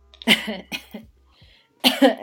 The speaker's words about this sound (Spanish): O sea, hasta me estabas Sí, estabas generando. estabas ahogando de... una muerte aquí en vivo en el programa.